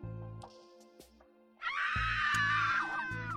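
Girls break into a loud, shrill, sustained scream partway through, held to the end over low, throbbing pulses that run beneath the whole clip.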